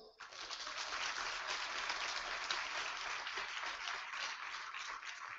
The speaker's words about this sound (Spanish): Amén. Gloria a Dios. Un aplauso al Señor.